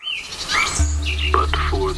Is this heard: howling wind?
no